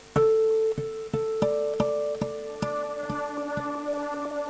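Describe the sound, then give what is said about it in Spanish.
An instrumental song intro: plucked or struck tonal notes land in a steady, evenly spaced rhythm, ringing into one another at a moderate, even volume with no singing yet. “Pero ahora, escuchate el tema que le da nombre al disco, ….”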